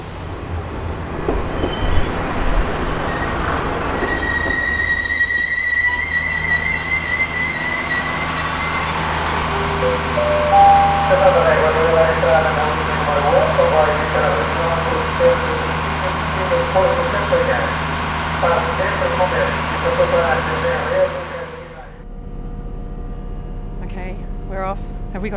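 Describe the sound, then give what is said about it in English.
Steady rumble and low droning hum inside a moving train carriage at the start of a journey in Portugal, with high squealing tones early on and indistinct voices mixed in, until the noise cuts off abruptly near the end. “So we went about 200 kilometres upriver from where we are now in Porto and then we Came all the way back down here to where the river empties into the ocean, but our journey began on a train.”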